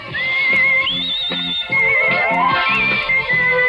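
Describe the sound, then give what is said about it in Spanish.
A bright, clear whistled melody carries the jaunty theme tune of a 1980s TV programme over a steady, bouncy instrumental backing, loud, with no voices. “No, era el silbido. La del silbido. Había una solo del silbido.”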